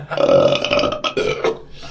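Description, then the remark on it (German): A long, loud, drawn-out burp rumbles for nearly two seconds with a low, croaking pitch, breaking briefly in the middle before trailing off. “Wer, wer, kriegt, wer, wer, kriegt noch ein Bäuerchen raus?”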